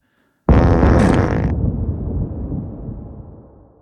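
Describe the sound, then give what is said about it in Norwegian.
A single loud, explosive fart bursts out suddenly and forcefully, then trails off into a low rumbling sputter that fades over a few seconds. No one speaks. “Noen kan høres ut som en maskinpistol, mens noen er eksplosjoner.”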